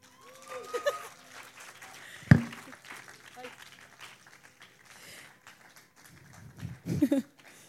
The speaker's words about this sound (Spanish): Les voy a cantar una canción más, pero si quieren me aplauden ya.